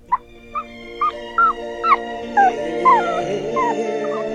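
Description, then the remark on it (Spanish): Several dogs in a house full of dogs howl and whimper together, short high-pitched whines repeating roughly every half second over a steady, overlapping chorus of drawn-out howls, moderately loud. “Me hice un lado de toda esa algarabía y el ruido que inundaba esa casa llena de perros.”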